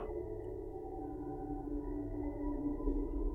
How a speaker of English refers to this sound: When you meet a big dog that's not sure of you, Without moving, it starts to make that first faint, deep growl on the very center of itself. So quiet you'd have to go closer to be sure you hear it. But you don't dare go closer.